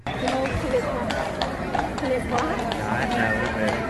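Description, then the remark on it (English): A mounted police horse's hooves clip-clop on pavement as it refuses to cross a rainbow pride crosswalk, an uneven, shuffling series of sharp knocks over steady street noise and indistinct crowd chatter. “Yes, this uh, horse that won't cross this uh, gay crosswalk.”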